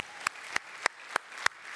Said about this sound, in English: just give all those ladies a clap. Way to go. God bless them.